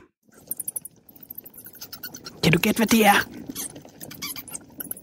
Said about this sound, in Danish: Det er lyden af en ret upopulær fætter. Det er øh, nemlig ham, der er skyld i det hele. Måske. Det er ikke nogen hemmelighed, at øh, coronavirus covid-19 med al sandsynlighed stammer fra en øh, flagermus fra et af de her madmarkeder øh, ude i Kina.